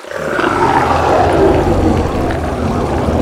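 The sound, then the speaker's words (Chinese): A deep, rumbling dinosaur roar sound effect, coming from beside a river, fills the whole clip, loud and sustained with a growling, gravelly texture and no voices over it. “嗯，再一次又听到恐龙吼叫的声音喽。”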